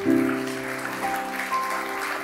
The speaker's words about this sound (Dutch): Schaam je niet, want de zaal geeft jullie een applaus.